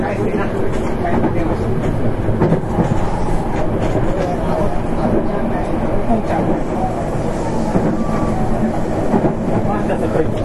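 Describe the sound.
A Nankai 8300 series train on an Airport Express service from Namba to Rinku Town runs steadily with a continuous low rumble and rolling wheel noise, faint rhythmic clatter over the tracks, and muffled voices murmuring under the mechanical drone.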